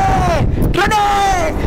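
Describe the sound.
Wind blowing over a live microphone makes a steady low, rumbling buffet throughout, with a sustained voice-like tone rising and falling above it.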